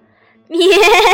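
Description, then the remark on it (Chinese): A person's voice imitates a goat's bleat, voicing the second goat answering the troll in a told children's story: one loud, wavering, nasal "meh" that starts abruptly after a short quiet moment and holds steady, with a shaky, trembling pitch. “咩！我是第二只山羊，嘎啦嘎啦。”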